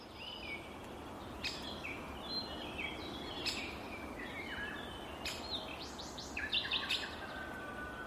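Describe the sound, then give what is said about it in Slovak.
Sharp, short calls of a great spotted woodpecker (Dendrocopos major) ring out a few times amid a chorus of other birds chirping and twittering, over a steady outdoor background hiss. “Ďateľ veľký po slovensky, pout veľký po česky a po latinsky to je dendrokopos major.”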